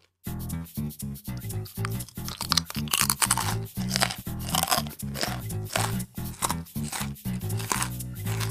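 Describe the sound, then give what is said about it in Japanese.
Crisp, crunchy chewing of a rice cracker snack, with a steady run of loud bites and crackling crunches repeating for several seconds, each one sharp and bright, with no talking over it. “もうね、噛むたびに、うまみがね、広がっていって、ああ、もう一個行きたいところだけど”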